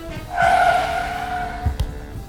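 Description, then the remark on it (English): A loud, sustained tire squeal rises suddenly as a car turns sharply, holding for over a second with steady high-pitched tones over engine rumble, ending in a couple of low thumps. “Quick, turn down there. Hold on to your potatoes!”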